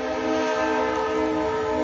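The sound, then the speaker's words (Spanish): A train passes, its loud, sustained horn blaring steadily with rich harmonic tones over a low rumbling of rolling wheels, filling the whole stretch without pause. “Perdón por el tren.”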